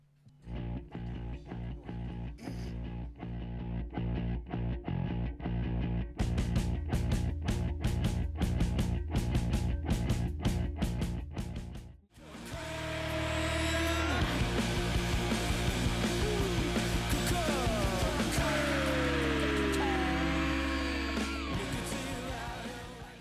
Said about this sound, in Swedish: Um, japp, uh, vi ska snart börja fråga ut vår gäst, men vi inleder programmet med att köra en låt.